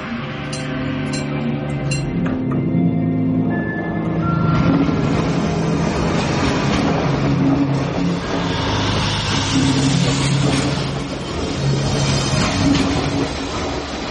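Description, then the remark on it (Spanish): A train pulls into a station with a steady, heavy rumble, low droning tones shifting in pitch and a few high squeals and clanks over a loud, continuous wash of noise; no one speaks. “Julia está ya en la estación esperando a que venga su tren cuando los policías llegan.”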